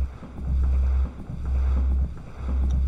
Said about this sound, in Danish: Altså tromlen og hjulet, de bruger til at måle rullemodstand. Og den kører på livet løs. Og det er altså den lyd, man hele tiden kan høre i baggrunden. Lyden af den her tromle, der kører rundt med det lille hjul på indersiden.